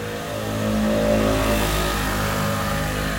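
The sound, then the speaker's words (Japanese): A motorcycle roars past with a revving engine, swelling to a loud peak within the first second and then slowly fading as it moves away; no one speaks. “バイクの音がすごいんですけどバイク通った”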